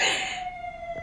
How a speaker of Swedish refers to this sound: Ja, hörde du? Vad var det där? Nej, men, det, där det där var en brandbil, tack och lov.